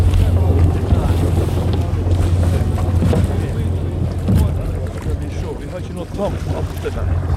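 A small boat's motor hums steadily as the boat turns to land on a shore with no pier at Refsvika, with wind buffeting the microphone and water splashing around the hull throughout.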